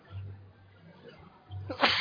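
A single sneeze bursts out near the end, preceded by a brief low, breathy intake; otherwise quiet with faint background hum.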